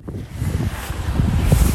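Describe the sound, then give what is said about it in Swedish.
Steady, blustery wind buffets the microphone with a low rumble, while waves wash against the shore outside Hovås cold-bath house on a sunny 30 January. The roar stays loud and continuous throughout, with no voices. “Vågorna slår mot eh, stranden och solen skiner.”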